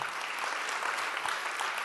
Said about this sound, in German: Und bevor ich meine Message euch weitergeben will, möchte ich sehr gerne, dass wir einfach bitte unsere Müttern applaudieren, einen Applaus geben. Lass uns doch mal aufstehen, aufstehen gemeinsam und unseren Müttern Danke sagen.